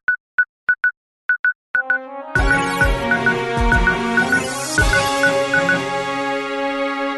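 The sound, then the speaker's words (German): A news jingle opens with a rapid series of short electronic beeps like telephone dialing tones, then bursts into a full, bright musical sting with punchy hits and sustained synth chords. “Das ist der schönste und beste News-Jingle, den ich je gehört habe.”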